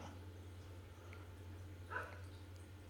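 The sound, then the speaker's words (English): A single short bark from a dog, Luca, part husky and part red cattle dog, rises once over a steady low electrical hum; no voices are heard. “What are you barking at, Luke?”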